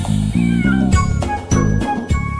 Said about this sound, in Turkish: Miyav miyav diyerek yaklaşıver bana sen Kedicim kedicim gel seveyim seni ben